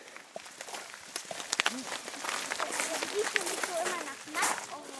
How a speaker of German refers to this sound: Die Kieselsteine knirschen richtig unter uns, weil es gerade eben geregnet hatte und jetzt sind die nass. Und dadurch hören wir sie besonders gut.